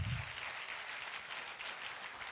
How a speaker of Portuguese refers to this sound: Dê uma salva de palmas a Jesus.